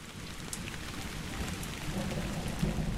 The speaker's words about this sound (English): Oh, I can do this actually. That is that is fresh rain smell.